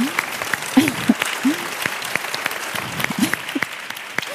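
An audience applauds steadily, a dense patter of many clapping hands filling the whole stretch, with a few brief vocal sounds and whoops poking through the clapping.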